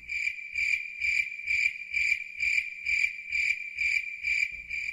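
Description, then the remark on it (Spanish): Insect chirping, like a cricket, the signature sound of a Colombian radio program first broadcast on 2 March 1992, repeats in steady bursts about twice a second. It is loud, with soft low thuds pulsing beneath each chirp. Nobody speaks. “Puede ser que le estén hablando del programa de Caracol Radio cuya primera emisión fue el 2 de marzo de 1992 y que suena así”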